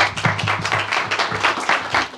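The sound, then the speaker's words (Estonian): An audience at a panel discussion applauds steadily, a dense patter of many hands clapping at once, fairly loud, filling the whole moment with no talking over it. “nii, väga hea, teeme ka sellise Aitäh. aplausi siis sellise ettepaneku eest”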